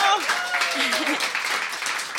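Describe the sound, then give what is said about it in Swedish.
A studio audience at the radio show Radio Total Normal breaks into steady applause to welcome a member of the youth editorial team, a dense wash of clapping at moderate volume with a few voices whooping and calling out near the start. “som vi välkomnar med en applåd”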